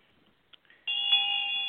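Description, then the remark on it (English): A ritual hand bell rings out clearly after a few faint clicks, struck once and then again, its bright metallic tone sustaining and shimmering without fading, alone; rung toward the quarters during a ritual, starting in the west and circling deasil. “rings the bell to the quarters, starting in the west and circling Deasil.”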